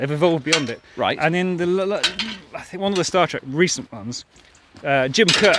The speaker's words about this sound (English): there's a gate if you're wondering what that sound was.